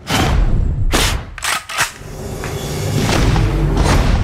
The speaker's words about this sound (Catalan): I darrere d'aquest ritme, darrere d'aquest so de les bales que van caient per terra, hi ha la quarta temporada de Fargo.